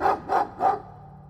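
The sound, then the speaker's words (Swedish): A dog barks three times in quick, even succession, fairly loud, each bark echoing briefly through a house before fading into quiet, as the dog comes running toward someone who has just unlocked the door. “Och i nästa ögonblick så hör du ljudet av hundskall som ekar genom huset och hur en hund kommer springande emot dig.”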